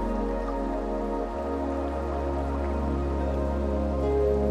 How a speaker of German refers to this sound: Das Wasser sprudelt und gluckert über kleine Steine dahin. An den meisten Stellen ist der Fluss kaum mehr als ein Rinnsal, nur wenige Zentimeter tief.